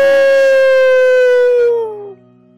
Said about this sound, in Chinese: 从红果子树林里传来阿尔伯托龙的吼叫声。